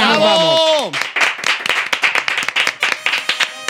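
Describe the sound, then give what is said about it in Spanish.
A short burst of applause for the second season of the show Farándula 021: rapid, irregular hand claps from a small group, loud and steady for a few seconds, opening with a brief falling vocal whoop. “Segunda temporada, un aplauso.”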